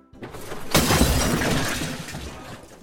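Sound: glass shattering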